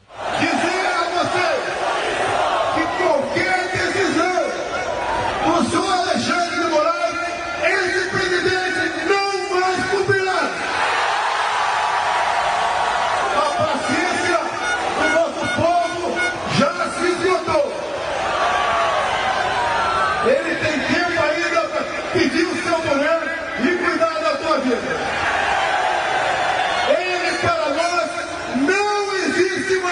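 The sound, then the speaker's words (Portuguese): Pot-banging street protest (panelaço) at night in São Paulo, Brazil, in reaction to President Bolsonaro's attacks: a dense, continuous din of metallic clanging mixed with a crowd shouting and yelling, staying loud and unbroken throughout. “Ouvimos de fundo as panelas aqui em São Paulo, Rio, Brasília, vários pontos.”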